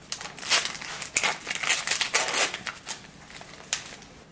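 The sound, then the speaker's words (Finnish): Wound dressings being handled and applied over a needle at an implanted port site, with irregular bursts of crinkly, papery rustling from packaging over about four seconds, fairly soft, with no voices. “No, sitten vaan laitetaan sinne sidoksia.”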